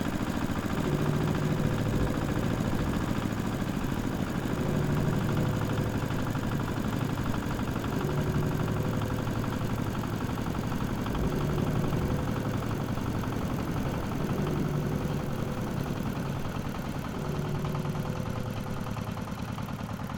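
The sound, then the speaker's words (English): A vehicle engine runs roughly and continuously, a low, steady rumble with an uneven, pulsing rhythm and faint rattling vibration throughout, with no voices. “Check the engine.”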